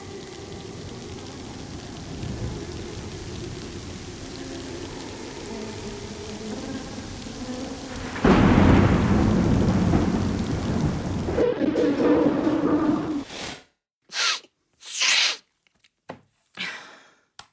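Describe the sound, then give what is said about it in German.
A thunderstorm with steady rain and gusting wind, low rumbling thunder building to a loud roll midway, ending in a few abrupt noisy bursts broken by silences. “Wind, Wind, Wind. Hörst du das, Mia? Da ist was, ein Geräusch im Regen.”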